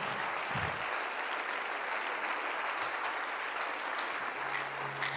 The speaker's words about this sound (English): If you are a sin shifter, clap your hands right now and give God. Sustain the clap if you are blessed.